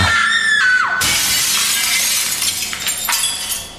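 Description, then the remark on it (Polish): A short, high falling tone gives way to a loud crash of glass shattering, bright tinkling shards scattering for a few seconds with a second smaller burst of breakage near the end. “Tuż po nim echem poniósł się donośny dźwięk tłuczonego szkła.”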